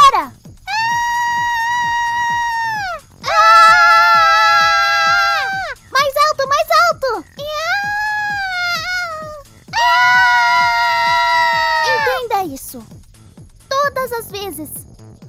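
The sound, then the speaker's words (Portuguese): Loud, sustained shouts ring out, a series of long high-pitched cries of a couple of seconds each with brief breaks between them, like an audience yelling back in response. “e eles vão retribuir com o grito deles.”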